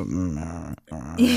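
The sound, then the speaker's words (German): A voice imitates a low, quiet dog growl in two sustained, rumbling bursts separated by a brief pause, moderately loud, with no other talking. “Man hört ihn ganz oft so leise im Hintergrund knurren.”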